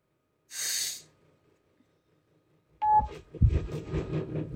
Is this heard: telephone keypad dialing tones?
yes